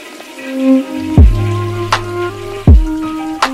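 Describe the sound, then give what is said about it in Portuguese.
A toilet flushes, its rushing water carrying a steady resonant hum from the pipes, broken by two sharp gurgling drops and a few faint clicks, with no voices. “Você está ouvindo? Descarga!”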